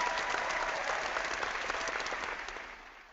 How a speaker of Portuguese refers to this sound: Ó, oh, o pessoal, o pessoal que escuta no iTunes está batendo palma para nós agora, cara. Olha só.